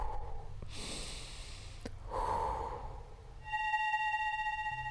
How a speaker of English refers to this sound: Um, I've let out this deep sigh and I shut my eyes. Mm-hmm and I just keep like breathing deeply.